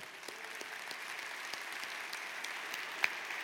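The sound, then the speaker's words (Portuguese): An audience applauds God steadily, a dense wash of many overlapping claps at an even, moderate level with a few sharper individual claps standing out, and no one talking. “Então dê um aplauso ao Deus que é fiel.”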